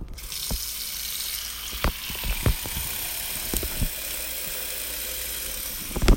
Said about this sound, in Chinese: 打开水龙头，在洗手槽开水，